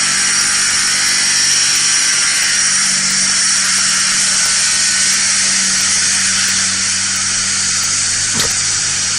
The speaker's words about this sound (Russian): Атомная станция, что ли? Это, это звуки ремонта всевозможного. Достаточно ну отвратительно звучит.